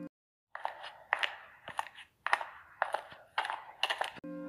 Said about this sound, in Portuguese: Os passos recomeçaram.